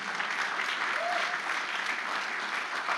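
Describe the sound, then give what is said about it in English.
Steady applause from an audience, a dense wash of many hands clapping at an even level throughout, with a faint voice briefly rising over it. “Yeah, you can put your hands together if you believe that”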